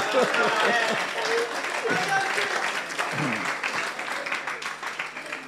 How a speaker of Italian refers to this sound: Gloria a Dio. C'è un applauso a questo tipografo.